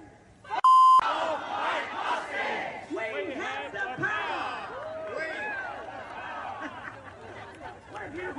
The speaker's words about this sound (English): this is a concert FM protest, and this is what they were chanting